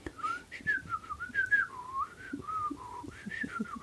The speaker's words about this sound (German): Also auf der Musik, da kann ich immer so zuhören und dann höre ich manchmal ein Pfeifen. Ich kann das nicht so gut. Hör noch einmal hin.